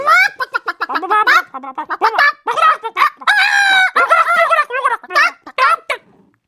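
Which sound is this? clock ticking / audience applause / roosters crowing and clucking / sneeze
roosters crowing and clucking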